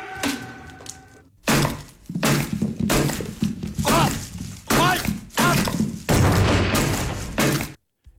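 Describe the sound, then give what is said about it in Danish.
A rapid series of loud, wet smashing impacts, one after another with brief pauses, as a man smashes a lot of vegetables with a bat; it starts after a quieter moment and continues for several seconds. “det er Lars Rasmussen, der smadrer en masse grøntsager her med et bat”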